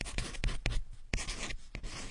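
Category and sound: household object, pencil writing on paper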